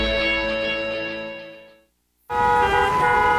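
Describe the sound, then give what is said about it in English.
Two long, loud car horn blasts with a brief silent gap between them, blaring over a low rumble of road traffic. “Looking for something to take your mind off this traffic?”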